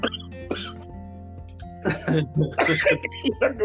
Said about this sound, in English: don't let me laugh because I'll just cough.